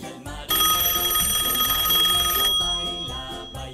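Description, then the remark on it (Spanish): A telephone rings loudly, one bright sustained burst lasting about two seconds, with a busy low background bed underneath and no voices; it is the fourth and last phone call taken on a radio programme. “Y ahora vamos a escuchar el cuarto y último llamado telefónico.”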